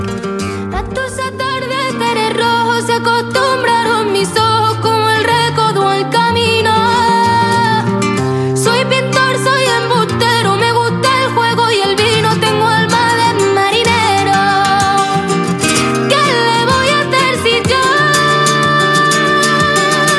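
A flamenco-style rendition of a song plays loud and continuous, a melodic voice carrying over dense, steady instrumental accompaniment from start to finish.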